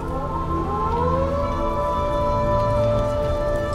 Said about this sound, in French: Tous les matins, la sirène retentit.